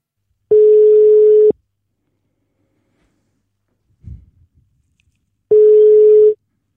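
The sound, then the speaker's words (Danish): A telephone ringing tone sounds twice as a radio host places a call to a former guest: two long, steady electronic buzzes about four seconds apart, with a brief faint rustle in the quiet gap between them. “Og derfor ringede jeg til min ene gæst fra program 7.”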